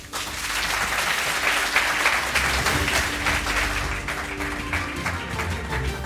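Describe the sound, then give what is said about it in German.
A live audience applauds in the Heinz von Heiden Arena, a second-division football stadium in Hannover, dense overlapping claps forming a steady, fairly loud wash that holds for about six seconds without anyone speaking. “Das klang jetzt schon wie 50.000 Zuschauer.”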